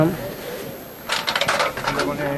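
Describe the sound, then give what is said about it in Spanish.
A rapid run of sharp, metallic knocks from the capataz's knocker on the San Gonzalo mystery float, about eight quick raps in a row, rising over a low murmur of crowd noise. “Mira, precisamente suena el martillo”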